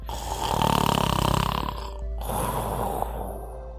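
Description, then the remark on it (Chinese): Snoring: a long, rattling, buzzy inhale lasting over a second, followed by a softer, breathier second snore. Fairly loud, with no talking over it. “亚马瑞也跟着打起了哈欠，不久他就打起了呼噜。”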